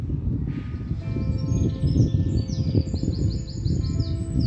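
Birds chirp and twitter repeatedly in the reeds and trees around a lake over a steady low rumble of background ambience, with several overlapping high calls sounding throughout.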